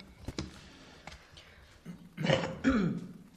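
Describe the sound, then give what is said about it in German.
Audible throat clearing with a rough cough, preceded by a couple of faint short bursts, then two louder harsh rasping efforts near the end, from a person coughing because of pollen. No one speaks. “Zu den, also wenn ich immer huste und nieste, ich habe kein Corona, sondern ähm, die die Pollen.”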